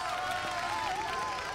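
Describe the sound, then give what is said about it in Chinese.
A steady wash of crowd applause as onlookers cheer the dog Buck reaching the finish after pulling a sled, dense and continuous clapping with a faint tonal cheer or hum running through it, fairly soft throughout with no speech. “当他走到终点时，人群立刻爆出如雷的掌声，”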